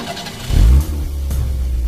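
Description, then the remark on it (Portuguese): A car engine cranks and catches with a loud low surge, then settles into a steady, rumbling idle. “Amor, me dá a chave do carro que eu vou atropelar esse rato.”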